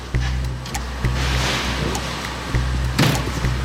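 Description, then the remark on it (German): Loud industrial noise inside a battery recycling production hall, where forklifts bring in delivered batteries: a steady low machine drone broken by several heavy thuds and clanks at irregular intervals, echoing in the large hall. No one speaks. “Und da waren dann Gabelstapler und die haben die Batterien, die geliefert wurden, in eine Produktionshalle reingefahren. Da drin wurde es dann schlagartig laut.”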